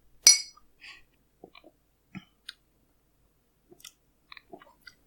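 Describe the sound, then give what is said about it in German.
A single bright clink of glasses rings out in a toast, followed by quiet, scattered sipping of beer with small mouth clicks and swallows, with no talking. “Okay, ich sag mal, Prost, Hannes. Prösterchen.”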